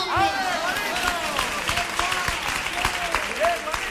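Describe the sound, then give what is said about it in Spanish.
An audience at a Christmas flamenco forum applauds for the speaker's grandfather with dense, steady clapping that continues for several seconds, while voices call out and cheer over the clapping. “Un gran aplauso para él, que los quiero más que, nadie en este mundo.”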